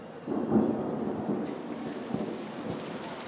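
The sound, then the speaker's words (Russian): A low, rumbling roll of thunder swells early and lingers beneath a steady wash of falling rain under a grey, overcast sky in Berlin, with no voices present. “Серое небо грозно опустилось почти до верхушек зданий. Вот-вот пойдет дождь.”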